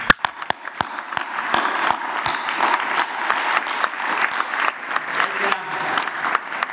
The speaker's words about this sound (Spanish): lo que les vamos a dedicar a los médicos es un aplauso.